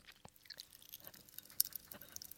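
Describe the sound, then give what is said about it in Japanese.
Quiet popping candy crackling in white and mint-coloured ice cream with green and red bits mixed in: a scatter of tiny irregular pops and fizzy crackles, with one sharper snap partway through and no voices. “パチパチしてるねすごいなんかあの線香花火くらいのとってもつつましやかな感じでパチパチパチパチしてるのがキラキラパチパチしてるのがこの マイクさんが全力で拾ってくださっておりますけれども”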